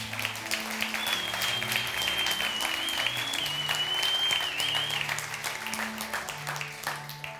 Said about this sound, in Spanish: Si estás de acuerdo conmigo, dale un fuerte aplauso a tu Dios.